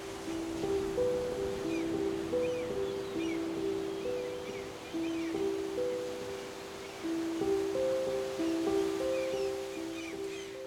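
A steady wash of ocean surf rolls on a beach, with gentle swells in loudness, while soft sustained musical tones hum along underneath. No one speaks.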